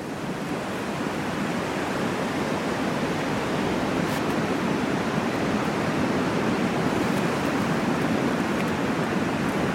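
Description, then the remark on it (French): Powerful surf rollers crash continuously onto the beach of the Baie d'Audière in Finistère, France, in the afternoon: a dense, roaring wash of breaking waves that stays loud and steady throughout, with no voices present. “Allez, écoutez le son des rouleaux avec ces vagues puissantes qui viennent se briser ici sur la plage de la Baie d'Audière.”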